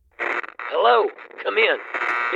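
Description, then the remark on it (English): A tinny, band-limited voice comes through a two-way radio, its pitch rising and falling in short bursts with steady static in between, moderately loud. “Someone was calling them over the radio.”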